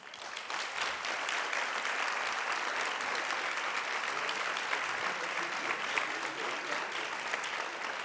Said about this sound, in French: Donc, je vous demande, s'il vous plaît, mesdames et messieurs, d'applaudir encore une dernière fois très chaleureusement nos invités.